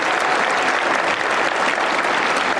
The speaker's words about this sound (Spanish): And a special thanks to the 42% of you actually applauded.